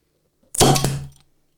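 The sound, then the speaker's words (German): A single sharp pop as a bottle is opened, followed by a short hiss of escaping gas that fades within about half a second. “Was oh, ist schön geknallt, deins? Meins ist zu kalt.”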